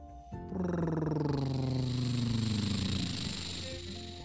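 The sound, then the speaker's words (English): A lawn mower's small engine roars to life as someone mows a lawn and runs steadily for a few seconds, its harsh buzzing pitch sliding slightly lower as it keeps going, fairly loud, with no voices. “My I was mowing my lawn and it must have launched a rock out the side and straight into your window.”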